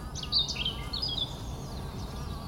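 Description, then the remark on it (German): Bees buzzing and humming in a steady, low drone outdoors in spring on an organic flower farm near Kelheim in the Upper Palatinate, Germany, with a few brief bird chirps above it early on. No voices are heard. “Wir tauchen ein in die Natur und hören zu, was uns die Bienen zu erzählen haben.”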